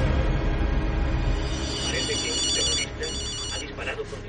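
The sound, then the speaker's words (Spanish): A mobile phone rings with a bright, warbling electronic tone repeating in quick pulses, sounding over a dense, rumbling background that fades slightly partway through. “El sonido de su móvil le saca de su simismamiento.”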